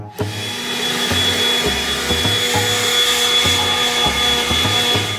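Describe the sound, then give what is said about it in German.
A leaf blower runs steadily with a loud, constant roaring rush and a thin high whine on top, plus faint low thumps recurring underneath. No one speaks. “Der Streit um den Laubbläser”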